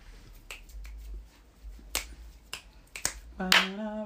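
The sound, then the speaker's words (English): A series of sharp, loud hand claps at uneven intervals, followed by a brief voiced, tonal sound near the end. “hey, because of church, I know how to clap loud.”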